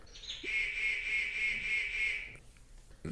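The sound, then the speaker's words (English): A water bird gives one long, steady, high-pitched call lasting about two seconds, clear, followed by quiet rustling. No one speaks. “Oh, that's one of those Water. one, of those Terry birds that I never get right. Sounds like a water.”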